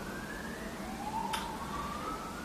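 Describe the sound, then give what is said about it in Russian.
A car honks outside, a faint, drawn-out wailing tone that slowly rises in pitch over a steady background hum, with a brief sharp click midway. “Машина бибикает.”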